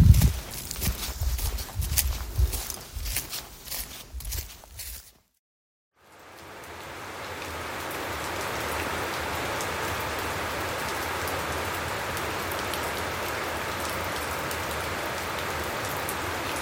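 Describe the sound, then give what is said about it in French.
Heavy thunderstorm rain, heard from under a small shelter beside a house garden at almost 11 o'clock, pours down in a steady, dense hiss that swells in after a brief silence; before the gap comes a burst of uneven, louder drumming of drops on a surface. “Il y a un orage qui est en train de tomber et il pleut fort.”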